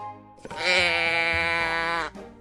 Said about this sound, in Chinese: 咩咩叫的应该就是绵羊吧？怎么？难道是山羊？